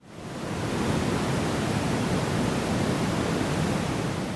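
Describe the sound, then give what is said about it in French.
An online "white noise" sleep track, not true white noise: a steady, dense hiss with a deep, rumbling low end, like a waterfall or rushing surf, fades in quickly and holds at an even level throughout, with no voices or other sounds. “ce que l'on entend par bruit blanc sur Internet est tout à fait différent”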